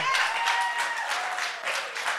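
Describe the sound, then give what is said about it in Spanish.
An audience applauds, a steady wash of many hands clapping at once, dense and even for the whole stretch with no voices standing out. “un aplauso, un aplauso, den un aplauso.”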